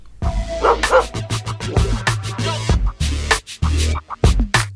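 A dog barks loudly and repeatedly, a rapid run of sharp woofs with a few higher yips mixed in, with no voices.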